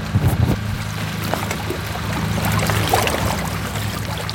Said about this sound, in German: Was uns empfängt auf der Insel ist aber nicht Ruhe, sondern Lärm, Traktorlärm, Pumpen, Rufe.